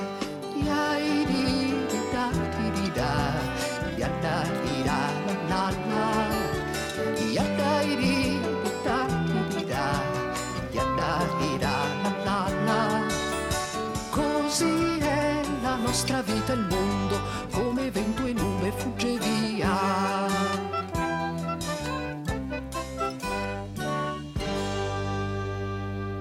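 An upbeat Italian folk song plays at full volume throughout, a dense, steady arrangement of melodic instruments with a lively pulse, closing on a run of crisp, plucked notes.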